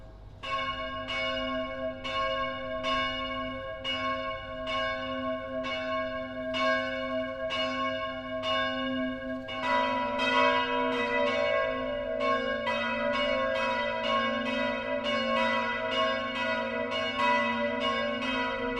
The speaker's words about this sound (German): BR Heimat, 12 Uhr läuten. Das Mittagsläuten kommt heute von der evangelisch-lutherischen Stadtpfarrkirche St. Matthäus im niederbayerischen Passau.